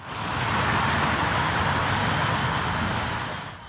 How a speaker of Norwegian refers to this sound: Biler kjører på regnvåt asfalt. Vi er på E16 ved Sollihøgda hovedveien mellom Oslo og Utøya.